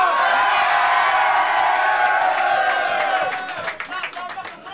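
A loud crowd at a battle rap event cheers and whoops with dense clapping for the two MCs, the roar sustained for a few seconds before thinning into scattered claps and shouts near the end.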